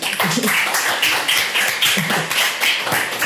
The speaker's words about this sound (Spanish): Un aplauso para todo el, equipo que está detrás, que, no lo veis, pero están por ahí.